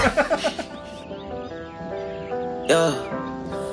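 A rap song's instrumental intro: a quick run of bright plucked notes gives way to sustained, wavering synth tones, with a swelling chord near the end. No vocals yet, moderately loud.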